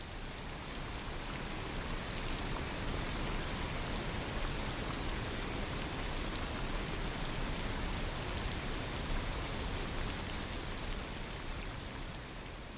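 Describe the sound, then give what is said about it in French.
Dense, steady rain hiss, equalized by amplifying missing frequencies and reducing overrepresented ones into an even, full-range pink noise, with a fine crackle of drops running through it. It stays constant for the whole stretch, with no voices. “exactement le contenu fréquentiel de ces sons et d'aller amplifier les fréquences qui manquaient ou diminuer les fréquences qui étaient surreprésentées pour corriger ce son de la pluie et en faire un bruit qui stochastiquement soit vraiment rose.”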